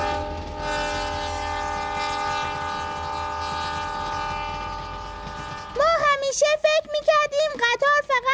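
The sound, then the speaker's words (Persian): A tourist train's horn blares in a long, steady chord for several seconds over the low rumble of the rolling train, then excited voices break in with choppy, rising and falling speech. “اما الان دریافتیم که قطار گردشگری هم داریم”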